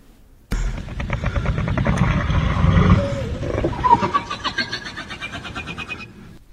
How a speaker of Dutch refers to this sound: Ja. Nou, een beetje een zeehond misschien op het eind. Ja, een zeehond met krakend ijs.